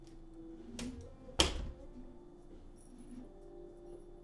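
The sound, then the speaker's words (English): A light click and brief rattle as a stick-and-feather cat toy is taken out, then a sharper thump as a door closes, followed by a low steady room hum with no voices. “And go ahead and make a bunch of noise with that as you take it out and close the door.”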